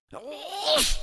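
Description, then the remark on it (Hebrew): A single loud sneeze: a rising voiced inhale "ah" that breaks into a sharp, breathy "choo" burst, then quickly fades. “לבריאות.”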